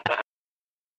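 A single short, voiced burp, a quick guttural croak lasting about a fifth of a second, fairly loud and alone, followed by silence.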